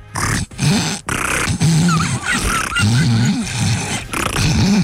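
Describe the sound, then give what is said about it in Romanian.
A person imitates an old dolphin with a run of low, gravelly, wavering vocal calls and grunts, broken by short pauses and a few thin squeaky whistles, loud. “Ăsta e un delfin bătrân.”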